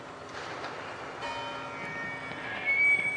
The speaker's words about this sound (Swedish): Ring, klocka ring.